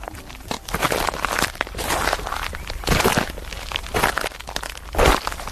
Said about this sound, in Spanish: Y volvemos a caminar sobre la gravilla, pero ahora la de un camposanto mejor lugar para pasear en silencio, cavilando y en paz con uno mismo, la verdad no lo vamos a encontrar.